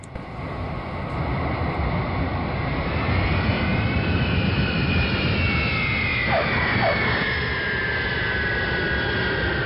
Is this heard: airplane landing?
yes